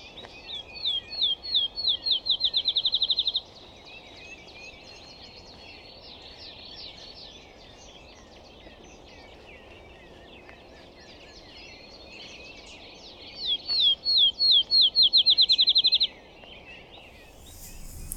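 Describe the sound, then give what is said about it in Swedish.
A Field Sparrow sings two clear phrases of rapid, accelerating whistled notes that speed into a trill, separated by a pause, heard alone over a soft background hiss. “Känner ni till Field Sparrow?”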